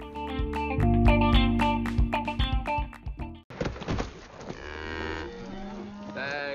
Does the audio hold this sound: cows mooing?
yes